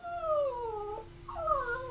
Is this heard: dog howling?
yes